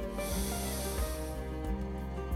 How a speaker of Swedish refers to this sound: Så jag gör det nu att andas in via näsan och andas ut via munnen. Så återigen tar vi ett andetag genom näsan